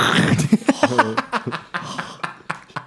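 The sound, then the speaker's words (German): A velcro wallet is ripped open to take out money, a loud crackling tear breaking into a quick string of short rasping bursts that gradually thin out over a few seconds. “Karabinerketten-Portemonnaies, das waren solche Klett-Portemonnaies auch”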